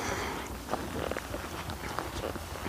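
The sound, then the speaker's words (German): A backpack creaks rhythmically in time with walking footsteps while hiking on a pedestrian-only forest path among beech trees: several short soft creaks and steps over a steady outdoor hiss, fairly quiet, with no one speaking. “Und ihr hört meine Wandermusik, mein knarzender Rucksack.”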